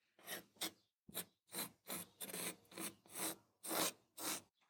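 Repeated scratchy strokes of a pencil sketching against a wall, about a dozen quick rasping passes in an uneven rhythm, fairly clear, with no talking.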